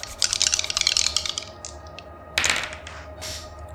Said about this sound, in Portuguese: Eu vou rolar aqui um dado de seis faces e vamos ver então. É, quanto mais alto, mais seco tá o tempo.